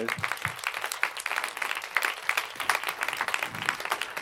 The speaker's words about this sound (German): Und ich glaube, für alle die, die dieses Abenteuer gestartet haben, aber auch für uns alle nochmal einen ganz großen Applaus für diese elf Jahre.